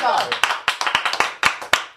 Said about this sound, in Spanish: Un aplauso, un aplauso.